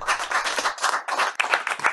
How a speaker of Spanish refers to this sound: Por favor, una ronda de aplausos para Sadhguru.